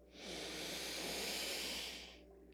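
A long, deep breath drawn in through the nose, a steady airy rush that swells and fades over about two seconds, with no talking; a deep breath taken during a guided breathing exercise, to be held for five seconds.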